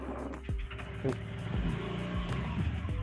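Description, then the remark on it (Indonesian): A motorcycle engine runs with a steady low rumble, its pitch rising and dipping slightly as it idles and revs, filling the whole clip at a fairly loud level. “waduh motor siapa tuh”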